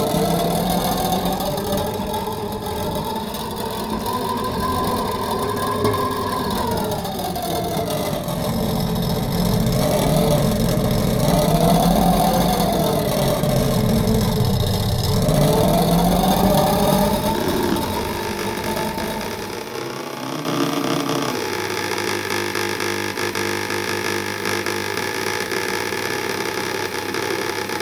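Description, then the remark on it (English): Intonarumori noise instruments play: a loud, grinding rumbler (rombatore) that swoops up and down in pitch like a revving engine, then a steady, nasal buzzer (ronzatore) drone takes over for the final seconds. “Here are two of the instruments, a rombatore and a ronzatore. In English, a rumbler and a buzzer.”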